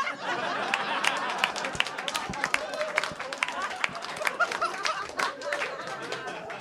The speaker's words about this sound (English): Everyone listening right now just went, why did they applaud that? that was a strange thing to applaud. Oh, they said it right. That's, we all applauded that.